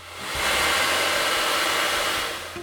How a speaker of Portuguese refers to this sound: acompanha esse movimento com o secador nas mãos, levando o vento para onde o Eric leva a mão